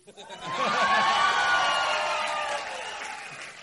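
An audience bursts into applause and cheering for the speaker's partner, a dense wash of clapping with shouts and whoops rising over it, swelling quickly, holding steady, then easing off slightly near the end.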